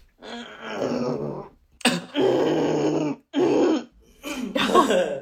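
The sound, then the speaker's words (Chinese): Someone clears their throat with the mouth shut, making four muffled, groaning hums with short pauses between them; each burst is fairly loud, low and resonant, with no talking. “然后当时我就想清嗓子，然后我就把嘴也闭着，我就，”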